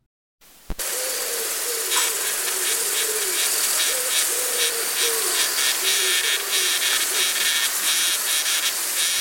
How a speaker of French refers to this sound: Donc le léger son que, vous entendez maintenant, c'est un bourdonnement par exemple, qui vient, qui a été enregistré sur une petite guêpe parasitoïde, qui va utiliser son aiguillon pour pondre ses œufs directement dans le corps de ses proies.